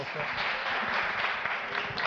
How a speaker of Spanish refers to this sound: Un aplauso también para ellas